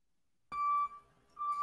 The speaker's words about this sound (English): Okay. Despite the, the truck that's backing up.